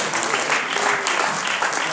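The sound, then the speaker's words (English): A church audience claps hands together in praise during a service, a dense, steady wash of applause with overlapping claps and murmured voices mixed in underneath. “Let's clap our hands unto the King of Kings and the Lord of Lords.”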